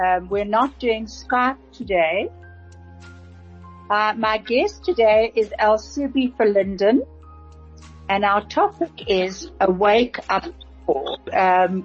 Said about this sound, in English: This is actually a WhatsApp call, and I can hear we've got quite an echo.